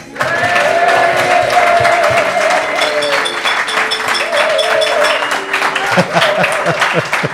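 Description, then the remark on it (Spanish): A live audience of about 50 people, touring Croatia, cheers and applauds loudly, steady dense clapping mixed with sustained whoops and shouts that carry on without a break for several seconds. “Suenan más de la cuenta porque son 50, que se dice pronto.”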